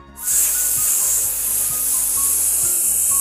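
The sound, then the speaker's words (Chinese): A steady, high-pitched hiss of air escaping from Kapi the dog's leaking inflatable pool, which has gone flat, starting abruptly and holding constant for about three seconds with no voices. “卡皮蹲下来，在充气池子边上仔细的听，他的大耳朵听到了非常小。非常小的嘶嘶”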